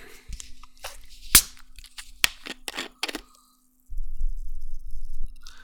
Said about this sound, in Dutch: Ik open het flesje.